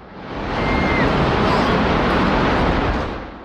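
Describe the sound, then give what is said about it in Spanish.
The 110-storey South Tower skyscraper collapsing: a thunderous, continuous roar of rumbling debris that swells up quickly, holds as a dense wall of noise for a few seconds, then begins to ease off. “Era el ruido de los 110 pisos de la Torre Sur derrumbándose.”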